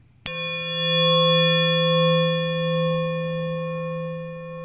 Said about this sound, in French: on vient d'écouter un couteau de cuisine suspendu à une ficelle.